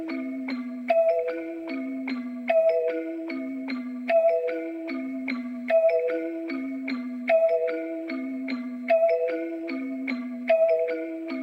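Instrumental intro of a rap song: a bright, bell-like melody loops a short descending phrase every couple of seconds, steady and fairly loud, with no vocals yet.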